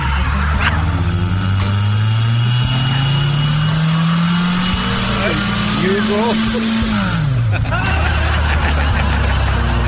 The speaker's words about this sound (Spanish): Qué carro tan madreado